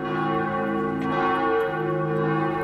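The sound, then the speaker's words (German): Church bells ring continuously with rich, sustained overlapping tones, their resonant hum coming in through an open window on the third floor of a fortress that houses a history museum in Vojvodina, with no voices present. “Der Klang der Glocken dringt durch ein offenes Fenster in der dritten Festungsetage.”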